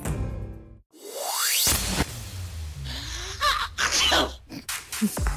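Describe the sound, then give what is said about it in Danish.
A rising whoosh sweeps past, then several sharp, breathy sneezes burst out in quick, uneven succession, with short inhales between them. “Jeg er jo øh, multinyser, som I, som I ved.”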